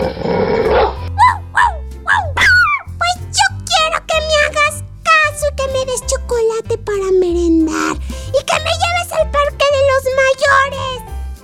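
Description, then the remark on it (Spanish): A small dog yips and whimpers in quick, high-pitched bursts with whiny rising and falling cries, fairly loud, over a steady low rhythmic backing. “He dicho que no, ladró su madre.”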